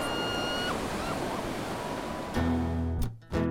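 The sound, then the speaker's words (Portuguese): Strong ocean waves roar loudly and continuously along a beach as the wind grows strong into a sandstorm, a dense rushing wash of surf, with a low droning hum rising near the end. “As ondas estão ficando muito fortes.”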